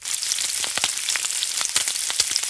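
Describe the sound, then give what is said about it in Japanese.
Bacon frying in a pan in the open kitchen of an American diner, a steady sizzle with scattered sharp pops and crackles throughout, rain-like and continuous, with no voices. “雨雨雨なんて降ってないけどでもあ ベーコンだよベーコンそこのアメリカンダイナーベーコンを炒めてるんだよオープンキッチンで”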